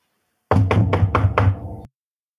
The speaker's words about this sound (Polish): I w tym momencie rozlega się pukanie do drzwi.